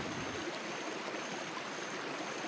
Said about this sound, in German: Er schloss seine Augen und horchte in die Stille, die nur vom steten Plätschern des Flusses unterbrochen wurde.